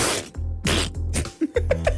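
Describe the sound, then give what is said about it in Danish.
A voice imitates a geyser sneezing into eruption with a few forceful, breathy sneeze-like bursts, followed by quick pitched whooping sounds, fairly loud, with no other talk. “Jeg har hørt, at man kan få dem til at nyse. Altså til at gå i udbrud, hvis du hælder sulfo i dem.”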